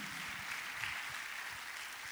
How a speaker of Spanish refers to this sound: Dele un aplauso a Jesucristo, el que lo hizo por nosotros.